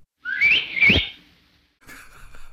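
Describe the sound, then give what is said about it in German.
A loud two-finger wolf whistle, a plasterer's-apprentice whistle attributed to Liesel Karlstadt, with two quick rising sweeps, followed after a short pause by faint, scattered background noise. “Du bekommst von mir nicht nur ein Dankeschön, sondern einen Pflaster-Lehrlingspfiff.”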